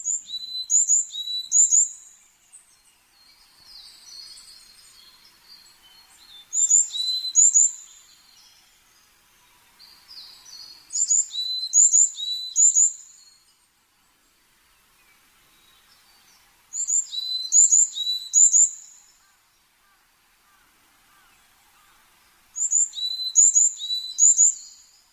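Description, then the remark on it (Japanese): A varied tit on Mount Takao sings clear, high whistled phrases in five separate bursts, each a quick run of repeated notes, with quiet pauses between and no other sounds around. “高尾山で最も出会いの多い小鳥が山柄でしょう道を歩いていると目の前を横切ったり澄んだ声のさえずりで山歩きの疲れを癒してくれます”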